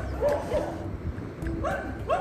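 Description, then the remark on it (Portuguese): Several dogs bark and yip outdoors on a street, overlapping in short bursts, with a steady low background rumble beneath them. “Eu fui gravar o podcast na rua achando que ia ser mais fácil questão do barulho, mas vocês estão vendo que tem uma sinfonia de cachorro aqui, né?”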